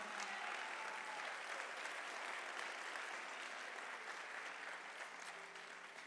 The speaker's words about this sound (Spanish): ¿Le puede dar un aplauso fuerte al Señor?